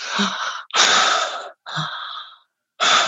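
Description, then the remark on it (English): A voice imitates heavy, wheezy breathing: four harsh, noisy, loud breaths in and out, with a brief pause before the last one. “um, or you're breathing like.”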